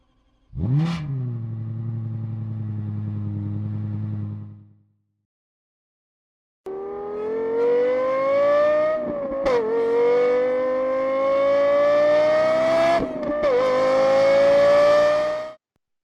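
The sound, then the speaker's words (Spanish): A Lexus LFA supercar engine fires up with a sharp blip and settles into a steady idle, then after a brief pause screams up through the revs, pitch climbing with two quick gear-shift dips. “de Lesus LFA o Lesus Lefa, como le llaman muchos.”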